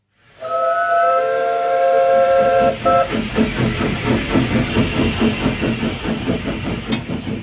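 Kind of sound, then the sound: vehicle, steam train whistle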